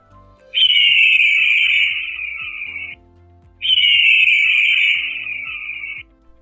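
Two long, shrill goshawk screeches ring out one after the other, each drawn out for over a second, loud, with faint ticking pulses underneath and no one speaking.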